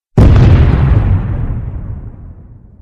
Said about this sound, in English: I lit the fuse and held the stick in my hand, giving the vamps a chance to get close. As things started to go black, I tossed the stick. The explosion was wondrous.